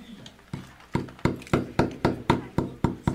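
A hammer drives a nail with about a dozen sharp, ringing strikes in a steady, quick rhythm, each blow landing a bit louder than the first few, with no voices.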